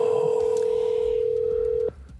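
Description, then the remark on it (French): A single steady telephone ringing tone on an outgoing long-distance call to a company, a clear mid-pitched electronic burst of about two seconds that cuts off abruptly, over faint line hiss. “Et on sent que nous appelons loin car euh, les sonneries ne sont pas les mêmes.”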